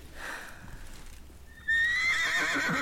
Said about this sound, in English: That's a horse. Correct. Yeah. Of course, of course, it's a horse.